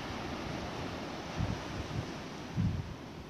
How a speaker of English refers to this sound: I really wanted you to hear the sea more than me.